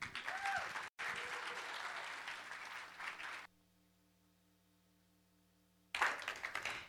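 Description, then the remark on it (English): Loud audience applause welcoming a guest fills the first few seconds, broken by a brief cut, then drops to near silence with a low hum before another burst of clapping returns at the end. “would you please give us give a well, well a warm welcome to Martha Creek”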